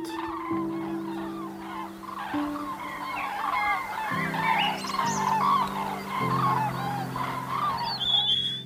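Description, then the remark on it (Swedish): A pine grosbeak perched in a birch tree in a small, wintry village in Småland, Sweden, sings a continuous, busy warble of bright, varied whistled phrases, steady throughout, layered over low sustained tones that shift pitch every few seconds like background music. “Jag tänkte, tallbit är verkligen inget bra namn på en sån häftigt sjungande fågel.”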